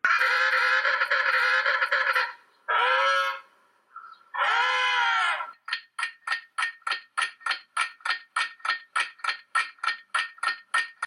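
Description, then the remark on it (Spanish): A penguin calls loudly on its own, starting with two or three long, harsh braying notes, then breaking into a fast, steady series of short, repeated honks. “¡Un pingüino! Así es, es el pingüino.”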